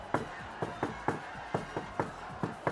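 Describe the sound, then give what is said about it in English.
A rhythmic knocking on a bathroom door, about a dozen sharp raps in a patterned beat, some falling in quick pairs, with nothing else heard in between. “Listen, you go into the bathroom first, and I'll knock like this.”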